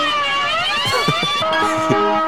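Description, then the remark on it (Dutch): Moog synthesizer tones from Paul Beaver and Bernie Krause's recorded demonstration glide up and down in pitch as knobs are turned, with layered siren-like whines over soft low pulses, then settle into steadier held notes. “Ja, voilà, die aan die knopjes aan het draaien zijn van die moe.”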